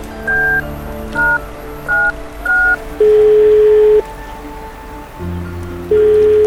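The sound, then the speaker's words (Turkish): A short sequence of electronic keypad beeps as a number is dialed on a mobile phone, four quick tones followed by longer steady tones, clear over a faint background hum. “Cep telefonumu çıkartıp Akın'ın numarasını tuşladım.”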